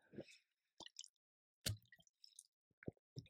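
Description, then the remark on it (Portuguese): Quiet sips of water: a handful of short wet slurps, gulps and swallowing clicks spaced irregularly over a few seconds, with no talking. “Pausa para mais uma água.”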